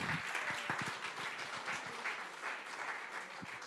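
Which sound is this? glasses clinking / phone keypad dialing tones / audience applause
audience applause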